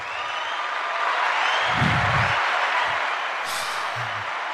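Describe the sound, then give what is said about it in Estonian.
Dense, steady applause fills the whole stretch, many hands clapping together at an even, fairly loud level, with no voices over it. “nii, äh, aplausid antud, äh, lähme siit edasi.”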